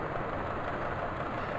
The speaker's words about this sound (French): Ça, c'est un son de moteur d'un petit bateau de commerce. les moteurs comme ça, on les trouve entre 20 et 500 Hertz.